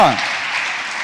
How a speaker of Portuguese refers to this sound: Um aplauso aí, pelo amor de Deus.